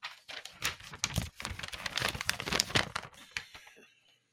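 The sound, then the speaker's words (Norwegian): Crisp crinkling and tearing of paper and tape as the taped door number 23 of a paper advent calendar is opened, with irregular rustles and small snaps for a few seconds before fading out. “Men apropos å holde åpent, vi skal åpne en luke.”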